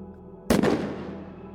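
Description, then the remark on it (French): A single sharp rifle gunshot cracks out abruptly after a quiet low hum, then fades in a long rumbling decay that trails off for about a second. “À la lueur de cet éclair, nous vîmes le père Bernier debout avec son fusil à la porte du donjon.”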